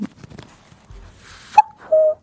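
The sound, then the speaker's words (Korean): After some soft rustling and shuffling, a person imitates a cuckoo's call for a voice-impression quiz on the Korean radio show Kang Han-na's Volume Up: two clear hooting notes, the first short and higher, the second held slightly longer and lower. “저 뻐꾸기 할게요.”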